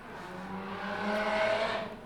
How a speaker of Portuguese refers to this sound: Passou a moto aqui.